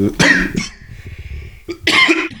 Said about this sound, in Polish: albo nie bójcie się, drodzy słuchacze, ten kaszel to nie zarazicie się COVID-em. Bo już miałem, miałem.